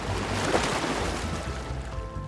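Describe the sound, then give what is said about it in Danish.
Ocean waves wash onto a beach in a steady, fairly loud roar of surf, swelling briefly near the start and then rolling on evenly, with no voices. “drømmer sig væk til lyden af bølgerne”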